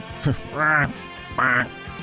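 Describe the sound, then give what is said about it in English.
An injured, lame duck quacks: a short clipped call, then two longer, drawn-out nasal quacks with a brief gap between them, loud and with no other sound. “That's a duck being gimpy and injured.”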